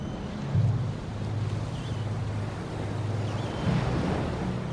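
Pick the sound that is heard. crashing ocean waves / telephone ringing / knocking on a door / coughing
crashing ocean waves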